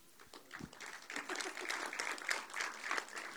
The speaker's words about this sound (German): Wir stimmen jetzt gleich mal ab mit Applaus. Okay, wer ist dafür, Liebe ist ein Gefühl?